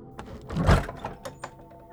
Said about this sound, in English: April thought as she slowly opened the barn door